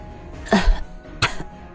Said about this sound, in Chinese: 杜琪峰呻吟一声，咳嗽出血。